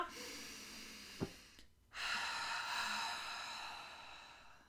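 One slow, deep breath taken as a focused cardiac coherence breathing exercise: a long airy inhale, a brief pause, then a steady, drawn-out exhale, with no talking.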